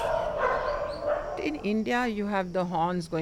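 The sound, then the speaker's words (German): A guide dog in Delhi barks in a quick run of short, tonal yips and yelps, several in a row, rising out of a noisy background hiss that fills the first half. “Der Blindenhund ist total verwirrt.”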